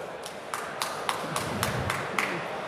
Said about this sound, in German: Applaus.